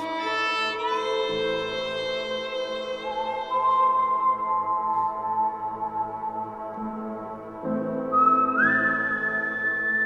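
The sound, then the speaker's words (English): A clear, melodic human whistle by a violinist carries long sustained notes over a rich instrumental backing in music written for a game, stepping between pitches and sliding upward near the end. No one speaks. “and so he became the whistler as well as the violinist.”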